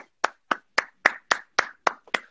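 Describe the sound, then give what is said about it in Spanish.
Eight crisp hand claps in a steady, fairly quick rhythm, clear with nothing else around them, sounding like a single person clapping rather than a crowd. “aplauso, aplauso.”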